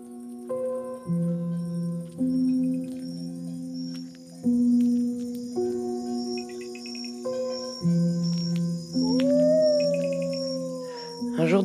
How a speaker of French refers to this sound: un souffle, une ou deux cloches au loin, des chiens qui aboient, des bruits de micro. Un son résonne et on n'entend plus que lui. Nuit noire dans les Cévennes.